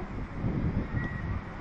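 A slow ujjayi inhale during breathing practice, drawn with the windpipe partly narrowed, making a steady, soft rasping hiss that holds evenly for under two seconds.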